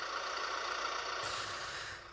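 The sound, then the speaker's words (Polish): A truck engine idles with a steady, even rumble and hiss, continuous and moderately quiet, with no voices, easing slightly softer at the very end. “to czekamy aż się ciężarówka.”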